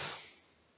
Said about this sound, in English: That is why when I start tearing this, you feel that I'm I'm causing chaos